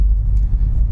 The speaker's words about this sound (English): We're currently on a boat. Apologies for the audio.